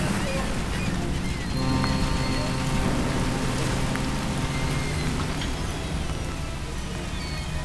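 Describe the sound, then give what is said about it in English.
Steady rain falls on a hard surface on the coast of England, a dense continuous patter with a low rumbling undertone, like wind or surf, holding even throughout. “It was still raining when I reached the coast of England.”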